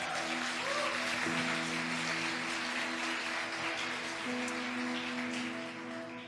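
An audience at an evening church service claps steadily for about six seconds in praise of God, a dense, even wash of applause layered over sustained low keyboard chords that shift once partway through.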